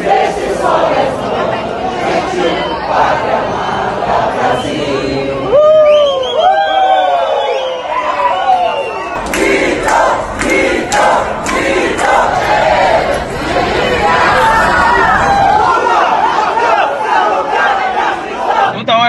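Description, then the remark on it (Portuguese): A crowd of Bolsonaro supporters gathered to welcome him chants and shouts in unison in the lobby of Brasília airport, Brazil, loud and continuous, with rising whoops and overlapping voices swelling in waves throughout, echoing in the airport hall. “Tinha esse grupo aí no saguão do aeroporto, mas Bolsonaro saiu pelos fundos.”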